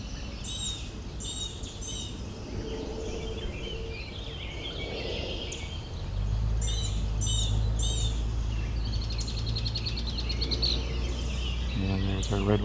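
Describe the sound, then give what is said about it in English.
Blackbird calls ring out in repeated short bursts, fairly clear, over a steady outdoor background that thickens into a low droning rumble halfway through. “Blackbird.”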